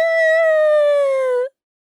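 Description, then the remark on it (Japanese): A huge cartoon elephant sneeze, blowing out a little alien named Wari, bursts out as a loud, brassy trumpet-like blast, holding one steady tone that sags slightly in pitch for about a second and a half before cutting off abruptly. “なんと、ゾウさんはとっても大きなくしゃみをして、宇宙人のワリを吹き出しましたピュー”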